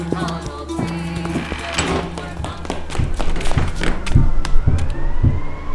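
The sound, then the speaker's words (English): A security police siren wails, growing louder as it approaches, while heavy thuds and hurried footsteps clatter. “Shit, it's street safe.”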